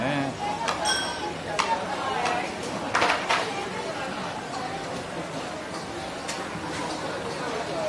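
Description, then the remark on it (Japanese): Busy hawker centre food court ambience at a common people's eatery, with a steady wash of crowd chatter and frequent sharp clinks of dishes and cutlery scattered throughout. “庶民の食堂ホーカーの音をどうぞ”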